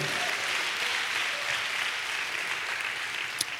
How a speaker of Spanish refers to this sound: dale un aplauso al Señor, a su nombre sea la gloria.